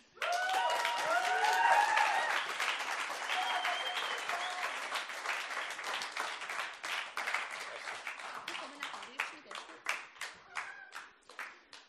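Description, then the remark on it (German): A crowd applauds to welcome a speaker coming onto a stage, with dense, steady clapping that gradually thins out, the last few claps separating into distinct, scattered hits. Some brief cheering or whistles rise over the clapping early on. “Darum, wenn er kommt, bitte begrüße ihn mit einem lieben, netten, freundlichen Applaus.”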